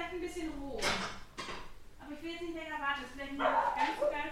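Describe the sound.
Ceramic plates clatter and clink as they are taken out and set down, a few sharp knocks, with voices and a yippy dog sound carrying on underneath.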